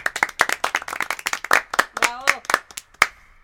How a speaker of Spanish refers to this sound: Un aplauso para él. ¡Bravo!